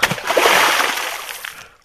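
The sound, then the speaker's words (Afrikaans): A single big splash as a crocodile dives into a river, followed by a brief wash of spray and sloshing that quickly fades away. It sounds loud. “Toe krokodil die water voel, duik hy in die rivier in met 'n ysklike plons.”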